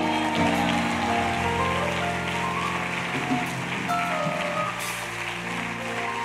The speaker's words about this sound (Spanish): Pero yo tengo un ejército. Mira alrededor, denle un aplauso a cada uno.